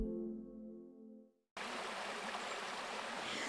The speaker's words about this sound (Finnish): Me ollaan parhaillaan täällä Miehikkälässä Hauhian kosken äärellä.